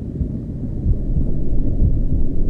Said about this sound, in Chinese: 这一刻，世界为我静止了，安静的只有心跳